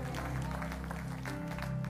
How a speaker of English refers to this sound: Would you stand to your feet with me and give the Lord a clap offering one more time and thank Him?